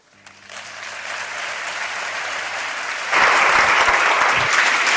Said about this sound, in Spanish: Finalizando queda ya casi este pregón y el público que no deja de aplaudir ante las bellas palabras que le dedica su hermandad.